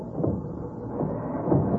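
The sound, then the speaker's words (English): A thunderbolt strikes the great front doors of a prison to blast them open, rendered as a deep, heavy rumbling roar that swells and surges steadily for a couple of seconds, loud and muffled, with no voices. “I, I must strike the great front doors with a thunderbolt to blast them open.”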